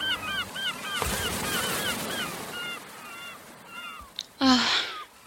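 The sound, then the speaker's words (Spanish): A flock of seagulls fluttering overhead and crying at sunset over the sea, with many overlapping squawks repeating steadily throughout. A soft rushing noise sits underneath, and a louder call bursts out near the end. “Las gaviotas revoloteaban por encima de la sirenita y dejaban oír sus alegres granidos de bienvenida.”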